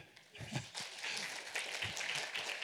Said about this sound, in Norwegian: Du må reise deg. ja, gi han en klapp.